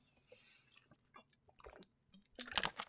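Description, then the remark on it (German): Someone takes a sip of a drink, with soft wet mouth clicks and a swallow, ending in a louder slurping gulp. No one speaks. “Und äh, ja, jetzt geht's gleich weiter mit dem Buch Thema, aber da werde ich euch gleich sagen, nachdem ich gleich einen Schluck getrunken habe.”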